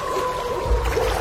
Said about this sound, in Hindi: पूरे माहौल में अब ढेर सारी डरावनी आवाजों के साथ नाव की पतवारों की आवाजें भी गूंज रही थी